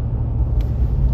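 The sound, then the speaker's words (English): A steady, heavy low-frequency engine rumble fills the inside of a moving truck cab, droning continuously and fairly loud with no voices over it. “I'm in the truck right now, so you might hear some some some truck noises, but I've got time right now, so so I'm gonna keep going.”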